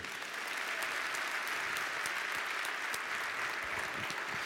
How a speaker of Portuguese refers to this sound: Quem é próspero, ele dá um aplauso ao Senhor.